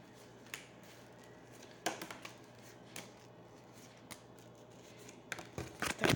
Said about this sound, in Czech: A já už se dívám na vaši fotku, míchám u toho karty a podíváme se teda spolu, jak se bude barvit ten rok 2022.